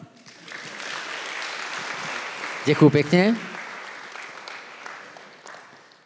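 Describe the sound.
An audience applauds steadily for several seconds, a dense crackle of many hands clapping that fades out at the end, while a voice briefly speaks over it midway.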